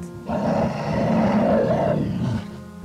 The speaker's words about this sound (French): Ils entendent au loin des cris de désespoir, de peur, et surtout les hurlements de la bête.